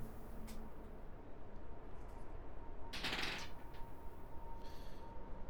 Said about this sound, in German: Würfel würfeln.